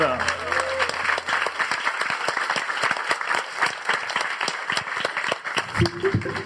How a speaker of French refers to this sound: Allez, à la fin de cette chronique, on peut applaudir l'équipe de Fibre, l'équipe jaune.